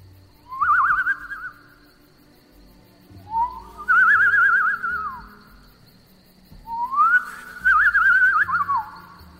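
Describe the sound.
Three soft, warbling whistles, each a couple of seconds long with rising and trilling pitch, made by a person through pursed lips imitating a birdcall to draw the attention of prey while hunting, with short pauses between them and no talking.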